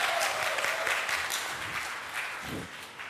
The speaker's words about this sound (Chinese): 好，会第四福的，愿意起来背的举手。好，这位姐妹哈，记得机会。好，我们给她热烈的掌声哦。